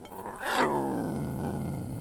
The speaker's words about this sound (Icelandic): Nóttin eftir vaknaði hún við öskur í fjallaljóni.